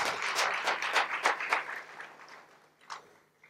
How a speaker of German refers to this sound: Vielen Dank. Das verdient Applaus.